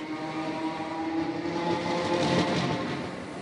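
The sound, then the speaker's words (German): A train pulls away from a station, its steady mechanical rumble and tonal whine building slightly, with a brief hiss swelling near the end. No voices are present. “Das klang, als würde ein Zug abfahren.”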